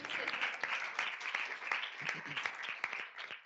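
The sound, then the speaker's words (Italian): A steady burst of applause, many hands clapping in a dense, continuous patter with a few sharper claps standing out, lasting a few seconds at moderate loudness. “Questo era d'applauso però ragazzi, okay.”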